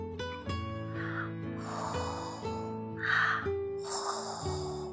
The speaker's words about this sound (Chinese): 呼噜呼噜，睡着啦。紧闭的眼睛，熟睡的脸蛋儿，红扑扑的，好可爱。